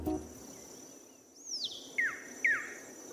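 A long-billed wren (Cantorquilus longirostris) sings three clear, sweeping whistled notes, each slurring downward, spaced about half a second apart, over a steady high insect hum and quiet background.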